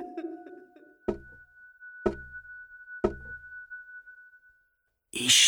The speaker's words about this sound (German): Die Geräusche kommen aus einer kleinen Holztür. Lieslig trippelt er drauf zu, zögert einen Moment und klopft mit seinem spitzigsten Klauennagel auf die Tür.